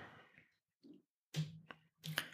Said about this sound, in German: Na, dann klicken wir doch mal dahin.